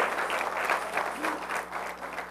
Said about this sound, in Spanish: Con ese aplauso yo no me siento muy bienvenido. Dele un buen aplauso.